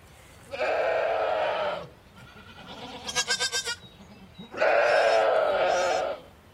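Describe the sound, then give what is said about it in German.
Dairy goats bleat loudly, two long wavering cries framing a quicker, stuttering burst of bleats in between, with no talking. “Bald müssen die Ziegen gemolken werden.”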